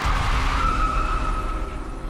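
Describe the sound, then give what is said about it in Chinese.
A car engine roars at full throttle as the car, shifted into reverse, backs up fast, while the tires let out a sustained, high-pitched squeal, loud and continuous for about two seconds, with no voices. “他也不多想，直接呢把这个自动排档拉去了 R 档啊倒车档，放下了手刹车，油门踩到底啊，然后车子呢就飞快的往后退。”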